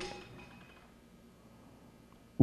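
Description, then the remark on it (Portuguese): A single loud knock near the end as a water container is bumped, spilling only a little water, following a stretch of quiet room noise; no clear pouring or splashing follows. “Então, perdoado o barulho e o pingo d'água extra, as coisas continuam, tá bem, amados?”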